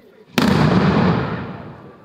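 A single loud firework bang bursts suddenly, then rolls into a long crackling, rumbling tail that slowly fades over about a second and a half, with low murmuring underneath. Rioters are throwing fireworks at vehicles in the Geitenkamp neighbourhood of Arnhem-Noord, Netherlands.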